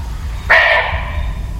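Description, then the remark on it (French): A single sharp, bark-like call from an Indian muntjac (barking deer) rings out abruptly, fairly loud, then fades quickly over a low, steady rumbling background. “Pourquoi l'appelle-t-on cerf aboyeur on l'appelle comme ça car lors de la période de rut, c'est-à-dire quand le mâle est amoureux, il pousse des cris ressemblant aux aboiements.”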